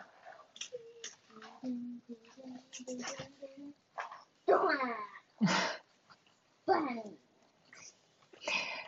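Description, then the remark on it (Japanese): A small LOVOT pet robot chirps and coos in a string of short, pitched electronic vocalizations, some tonal and warbling, others breathy bursts, fairly loud with brief pauses between calls. “ここにね、うちの場合はラボットの声も入ってきますからね。”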